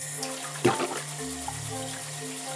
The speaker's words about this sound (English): Then just turn on the faucet and give the beans a good rinse with cold water. You may want to use your hands to move them around a little bit to make sure all of the aquafaba has been rinsed away.